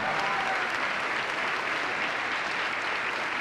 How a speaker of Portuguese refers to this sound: E olha quanta gente, vamos aplaudir. Olha quanta gente que está chegando. Vamos aplaudir mais. Olha aí, gente. Está chegando mais, está chegando mais. Vem, vem, vem. Ô glória, vamos aplaudir, igreja, vamos comemorar. Vamos comemorar, venha.